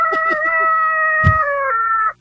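A rooster crows loudly, one long sustained harmonic call lasting about two seconds, preceded by a few short clucking notes and a brief low thump midway.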